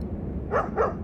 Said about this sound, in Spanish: como que mordisqueo un poco la mano de, del más alto, el que lleva la, la, lanza, y como que ladro hacia afuera y trato de correr, como dándole la, la indicación de que apure el paso.